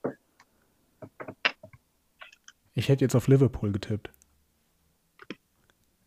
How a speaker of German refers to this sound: jetzt habe ich ein paar Spratzer drin in der Verbindung.